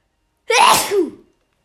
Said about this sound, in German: Oh, sorry, ich muss niesen.